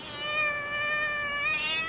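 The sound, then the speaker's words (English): A single drawn-out cat meow, held at a steady, bright pitch for about two seconds, fairly loud with no talking around it. “kitty o ne a tlolatlola mo bolaong mme morago a fologa o ne a lela”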